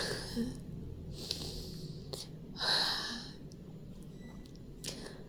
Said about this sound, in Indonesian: oke aku nafas sebentar